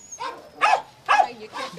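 A dog barks four times in quick, evenly spaced bursts, the middle two sharper and louder, with no one talking.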